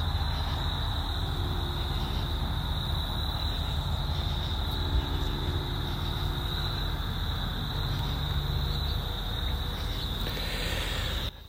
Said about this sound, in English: And I can still hear that aircraft off in the distance.